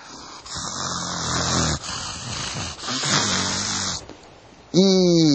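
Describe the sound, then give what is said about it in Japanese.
A man's voice mimics a manager snoring at night inside a mosquito net on a hot summer night: long, rasping inhaled snores repeating in a slow rhythm, loud, ending with a sharp nasal snort-like burst. “どうもそのいびきが耳につて寝れない。”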